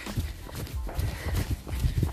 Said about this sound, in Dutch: Jij rent door. Ik ren ook door. Je hoort mij rennen.